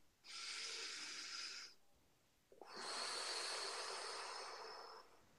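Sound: a deep breath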